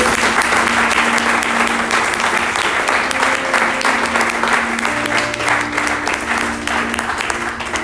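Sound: audience applauding loudly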